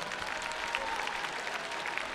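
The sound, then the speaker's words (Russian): Steady, dense, festive audience applause at a stage event, a continuous crackle of many hands clapping at fairly even loudness throughout, with no voices standing out. “Большое-большое всем вам спасибо за то, что вот мы когда говорили в самом начале, сегодня звучат особенные, бурные, праздничные аплодисменты в два раза громче.”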